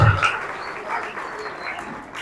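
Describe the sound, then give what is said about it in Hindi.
An audience at a Christmas church service applauds together to give glory to the Lord, a steady wash of many hands clapping at moderate loudness that carries evenly through the whole moment without any voices on top. “आइए प्रभु को पूरी महिमा दे तालियां बजाकर”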